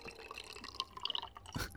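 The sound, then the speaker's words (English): Coffee being poured over a microphone, with wet, bubbly trickling and small dripping plinks, ending in a louder splashing gush. No one speaks. “I think I was just going to pour coffee over the microphone because I, I didn't have another vessel.”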